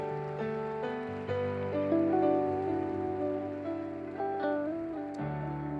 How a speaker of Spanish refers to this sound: Amén. Dale un fuerte aplauso a Él, dale un fuerte, fuerte aplauso.